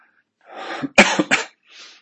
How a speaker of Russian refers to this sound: Вот даже про тот кашель, который у меня сейчас э, э, проявлялся несколько раз.